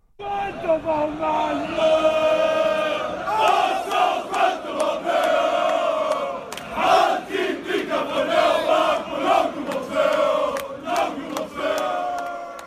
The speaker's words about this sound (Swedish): Nästa skåning ut är Pontus Jansson, alltså fotbollsmittbacken. Okej. Eh, och eh, han ackompanjeras av några Malmö-supportrar i en MFF-ramsa. Okej. Hör du vad, vad de brölar om?